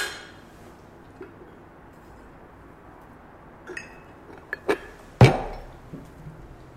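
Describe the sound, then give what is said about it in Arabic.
A few glasses clink together in a toast: several sharp, bright taps in quick succession, one louder ringing clink near the end, over quiet room background with no talking. “خلصنا خلصنا تشيرز تشيرز”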